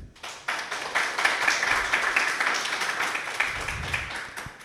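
Audience applause breaks out suddenly, a dense rattle of many hands clapping steadily at a fairly loud level for several seconds before starting to thin toward the end.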